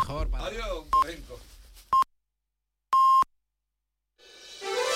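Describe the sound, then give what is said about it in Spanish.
Radio time signal pips mark half past seven in the morning: two short electronic beeps a second apart, then a longer final tone, clear and loud, following a man's speech and before a burst of sound. “Acaban de dar, ustedes lo han escuchado, las siete y media de la mañana.”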